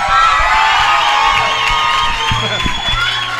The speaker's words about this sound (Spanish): Gracias, gracias. Fuerte el aplauso para el maestro Edmundo Miller, por favor. El aplauso, maestro.